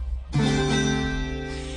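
A single bright chord strummed on a tiple, struck sharply after a brief pause and left ringing with many shimmering string tones that slowly fade, heard alone.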